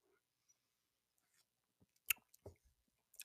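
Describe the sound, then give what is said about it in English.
A quiet sip of hot chocolate: soft wet mouth noises, a sharp little click and a brief slurp, then a swallow, with near silence around it. “Um, hot chocolate sip as we're up to four minutes and 58 seconds.”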